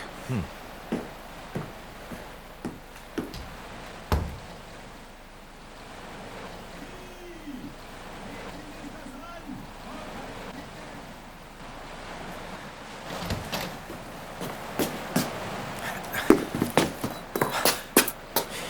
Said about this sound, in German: Warum, warum ziehst du deine Schuhe aus und wirfst sie ins Meer?